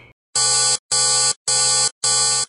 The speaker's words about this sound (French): Alors il continue à tirer de toutes ses forces jusqu'à ce que le fond cède en pulvérisant un liquide jaune fluo d'une odeur infecte, déclenchant une alarme et des voyants clignotants dans le bureau.